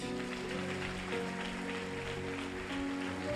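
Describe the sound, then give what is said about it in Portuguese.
A crowd at a religious service claps steadily and continuously after a prayer, a dense wash of applause that fills the space, with faint sustained musical tones running underneath. “Aplaude, ele aplaude.”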